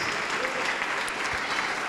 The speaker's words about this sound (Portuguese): Vamos aplaudir mais porque está chegando e tem mais. Está chegando mais. Vem filho pródigo, vem filha pródiga. E está chegando mais. E todos que não têm igreja, vem aqui para frente e vamos aplaudir mais.